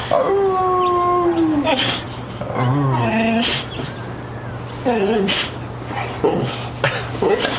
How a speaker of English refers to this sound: Oh, he's howling for you. So usually on this show, the Basil sound effects you hear are pre-recorded. That this is all real, folks. You're hearing the real thing. Basil.